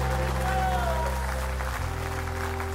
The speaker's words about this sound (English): And if you believe God can still do miracles, give the Lord a great big clap offering.